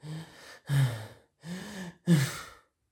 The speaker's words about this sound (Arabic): وهي عم تاخد شهيق زفير